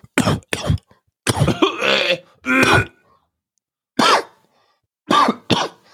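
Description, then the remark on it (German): A voice imitates the harsh, raspy coughs and throat-clearing grunts of sick patients in a small waiting room, loud, coming in irregular bursts with short pauses between them. “sieben Quadratmeter mit, mit 16 anderen wartenden Patienten. Ja, die alle Lupus und Tuberkulose bist. haben und, und dann wirst du, dann wirst ja.”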